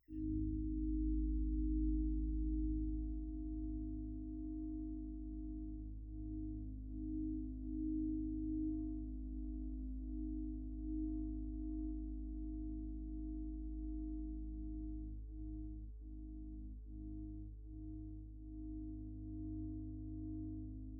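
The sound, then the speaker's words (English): A deep, sustained metallic drone with layered low harmonics hums steadily, picked up by a contact microphone on a 400-foot radio tower in a marsh, shaken by very high winds, with slow swells and a few faint shudders throughout. “The vibration you don't hear it with the the your ear, but the vibrations are these very haunting drones.”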